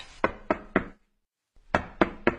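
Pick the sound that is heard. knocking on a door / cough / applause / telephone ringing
knocking on a door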